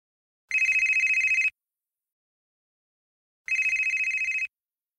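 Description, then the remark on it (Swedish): A mobile phone rings in two sharp, buzzing bursts of about a second each, separated by a short silence, loud with no voices present. “Mobilen ringde.”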